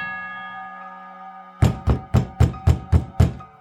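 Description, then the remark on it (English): A lingering bell tone sounds the hour of four o'clock while still dark and fades out, then seven firm, evenly spaced knocks land on a wooden street door, loud, with no voices. “As the bell sounded the hour, there came a knocking at the street door.”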